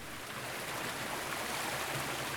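A third waterfall pours forcefully over black rock on a windswept moor, its dense, continuous rushing roar filling the whole moment without pause. No voices are heard, just the unbroken wash of falling water.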